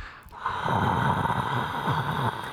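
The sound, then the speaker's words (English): A voice imitates a droning studio air conditioner with a steady, breathy whooshing hum that holds for a couple of seconds, fairly loud, with a rough snorting texture. “Yeah, we have to do the show with the air off because otherwise you just hear.”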